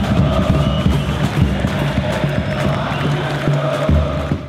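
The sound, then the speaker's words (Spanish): A large crowd, mostly young people, roars and cheers continuously in a packed Luna Park on 14 November 2021, celebrating Javier Milei's election debut; a dense wall of voices with scattered shouts rising out of the din, loud and sustained throughout. “El lunaparque estaba repleto, en especial de jóvenes.”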